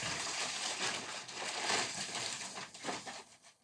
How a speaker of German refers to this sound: Und äh, ja, also warte mal, ich muss was aus der Tüte holen.